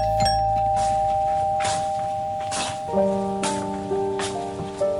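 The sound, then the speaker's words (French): A doorbell at a home's door, rung by journalists, chimes twice, its tones ringing out and lingering, the second chime lower and fuller, against a steady hiss like rain with a few soft bursts of noise. “Des journalistes sonnent à sa porte, encore sous le coup de l'émotion, elle répond à leurs questions.”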